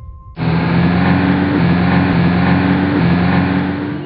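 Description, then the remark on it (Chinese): A car engine suddenly roars to life and keeps revving hard as the driver presses hard on the accelerator and the car goes faster and faster, a loud, steady, throaty drone with a low humming tone running under the rush of noise, no voices. “他还是拼命的踩油门，汽车越开越快。”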